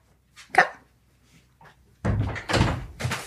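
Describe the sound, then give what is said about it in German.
A door clunks open with a brief squeaky click to let in a dog, Eiler, who had been sitting outside the door whining; a second later busy scuffling and rustling follows as the dog comes in. No one speaks. “Ich glaube, wir müssen Eiler schnell reinlassen, ja, weil sie...”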